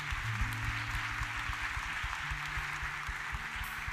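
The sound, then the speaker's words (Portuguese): An audience applauds steadily, a dense wash of many hands clapping at an even level throughout, with no voices rising above it. “Vamos aplaudi-lo bem forte.”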